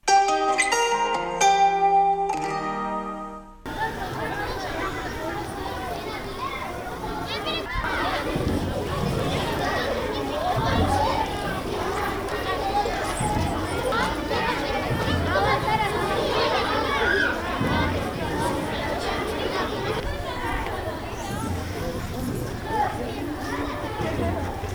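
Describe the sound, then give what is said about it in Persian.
A lively crowd of young girls chatters, shouts and laughs across a school playground in Afghanistan, a dense continuous babble of girls at play, preceded by a few seconds of musical tones. “صدای خنده دختران جوان در زمین بازی مدرسه گذر بود.”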